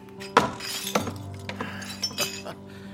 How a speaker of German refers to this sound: Teller kaputt